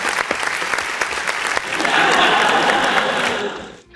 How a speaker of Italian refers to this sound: eh mi ha fatto l'applauso ah è venuto l'applauso sì, è un applauso un po' lungo come effetto